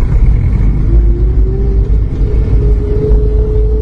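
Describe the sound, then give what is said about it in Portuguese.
A car pulls away in the morning, setting off on a drive to Porto Alegre, its engine rumbling low and loud, then rising steadily in pitch as it accelerates. No one speaks over it. “No dia seguinte, pela manhã, Robert partiu com Ferdani de carro para Porto Alegre.”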